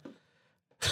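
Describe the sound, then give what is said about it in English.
A single sharp, loud sneeze bursts out at the end, preceded by a faint breathy intake and a brief pause, with no talking. “Oh bless you.”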